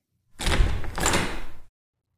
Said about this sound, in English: Mark rushed to the door with one of our fire irons in his hand. He looked into the peephole, and there was no one there. Mark then opened the door